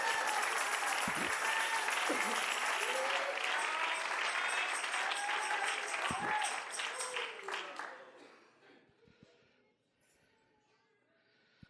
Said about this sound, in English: Oh, why do we clap our hands unto the Lord right now?